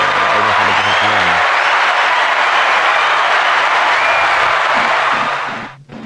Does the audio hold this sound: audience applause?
yes